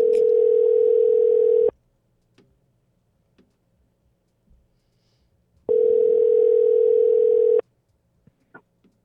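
Two long, steady ringback tones on an outgoing phone call, each lasting almost two seconds with a pause of about four seconds between them, plus faint clicks in the gaps.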